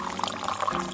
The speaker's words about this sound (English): That is the sound of hot water being pushed through freshly ground coffee, which eventually leads to the pouring of coffee